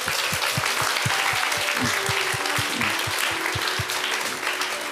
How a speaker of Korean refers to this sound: 자 승리를 주신 하나님께 우리 영광의 박수.